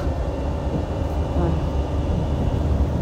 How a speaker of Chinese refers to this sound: 好了，火车出开起来了。